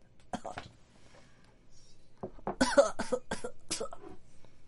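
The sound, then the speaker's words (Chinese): Someone coughs in a quick burst early on, then lets out a louder run of harsh, rough coughs in rapid succession, broad and raspy, with a faint low hum underneath. “对，那我要咳嗽，来不及关麦克风，我抱歉。”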